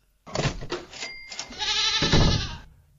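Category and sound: animal, goat bleating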